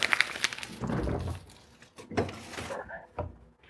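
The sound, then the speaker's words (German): A refrigerator door is pulled open and pushed shut, with soft thuds, a brief rattle and some handling noise in between, as an opened bar of chocolate is put back into the fridge. No one speaks. “Natürlich das direkt wieder im Kühlschrank.”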